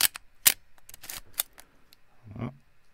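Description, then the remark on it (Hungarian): An analog film camera shutter clicks several times, sharp mechanical snaps with a brief rattling burst, followed by a softer, duller clunk near the end, with no one talking. “Teljesen más a hangja egyébként, azt akar, hangot akartam demonstrálni”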